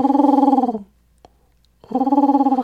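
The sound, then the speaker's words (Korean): A person mimics a pigeon's coo with their voice: two low, throaty warbling phrases, each pulsing rapidly, separated by a short silence with a faint click in between. “어 다시 한 번만 해주면 안 돼요? 비둘기.”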